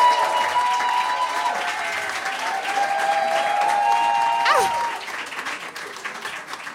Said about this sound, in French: On peut l'applaudir